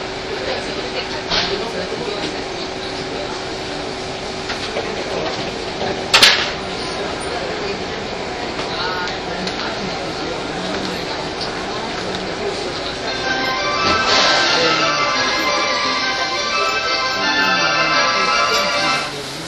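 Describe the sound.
A 201 series electric train on the Chuo Rapid service from Tokyo to Takao runs steadily with a constant low hum and a sustained tonal whine, a sharp clack around six seconds, and rising rumble and screech later; voices murmur faintly underneath.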